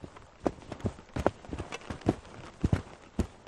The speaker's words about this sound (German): Oben am Bergkamm angekommen, trampeln sie als erstes mit ihren Skiern einen Startplatz in den Schnee.